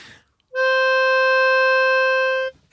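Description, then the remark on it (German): A single harmonica note, played by a football referee in place of a whistle, held steadily for about two seconds, loud, with a bright reedy tone that starts and stops cleanly and plays alone without any voices. “Es, es gibt wunderschönes Videomaterial davon und dann ist immer Freistoß und der Schiedsrichter harmoniert an.”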